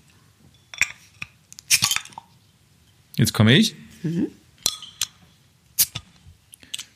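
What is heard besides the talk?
beer bottle being opened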